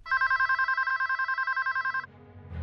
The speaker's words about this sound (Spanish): Al fin sonó el teléfono.